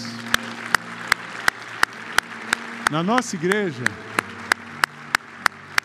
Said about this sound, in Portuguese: Queria que a gente desse uma salva de palmas para as mulheres.